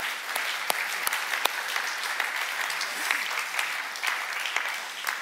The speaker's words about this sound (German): Und ich glaube, wir geben all denen auch mal einen ganzen, ganzen, ganzen herzlichen Applaus.